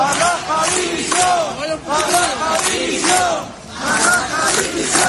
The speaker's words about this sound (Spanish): De ahí que el grito que más se escuchó ayer en Barbate, durante un acto de repulsa a este crimen, el grito que más se escuchó fue este.